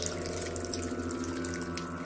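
Water runs steadily from a tap in a bathroom as a man washes his body for a long time, a continuous hissing splash with a low hum beneath it, unbroken for the whole two seconds, with no voices.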